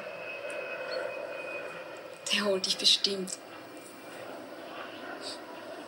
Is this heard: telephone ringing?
no